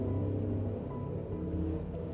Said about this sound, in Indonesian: sorry banget tadi ada suara kendaraan fucking knalpot nyaring banget